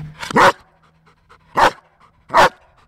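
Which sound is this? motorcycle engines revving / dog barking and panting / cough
dog barking and panting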